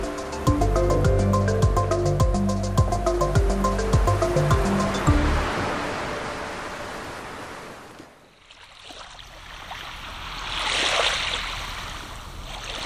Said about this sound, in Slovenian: morje in mi.